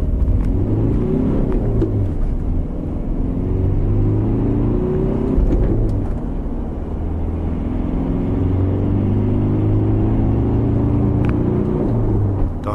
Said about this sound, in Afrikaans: net een masjien in die reeks, 'n 2 liter turbo diesel wat 120 kW en 400 Nm wrinkrag uitskop. Dis bietjie meer krag as die Hilux se 2.4 en die Ranger se 2.2. Vierde vat jou tot 130 met nog twee ratte vir die lang pad. Voldoende krag.